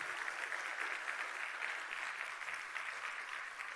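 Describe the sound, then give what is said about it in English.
Steady applause from an audience at a women's retreat, for a newly introduced student pastor, fills the whole moment, a dense, continuous patter of many hands clapping at an even level without any voices standing out. “And give it up for”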